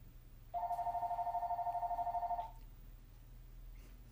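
A telephone rings in one continuous burst of about two seconds, a bright warbling electronic tone with a rapid pulsing flutter, fairly close and clear over a low background hum, then cuts off.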